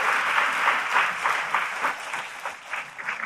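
A crowd claps steadily, a dense patter of many hands filling the room at moderate loudness, with no voices over it.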